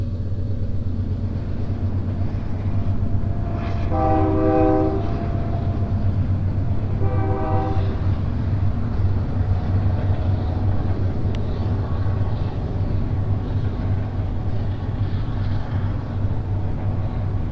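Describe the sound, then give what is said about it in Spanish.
A train rumbles steadily and loudly across the plains at Apan, and its horn sounds two long, tonal blasts a few seconds apart before the heavy rolling noise carries on alone. “Los llanos comenzaron a vibrar con el sonido de una máquina, una enorme máquina que para ese entonces transportaba algodón, azúcar, frutas, pulque, carbón, ganado, madera, café y por supuesto viajeros.”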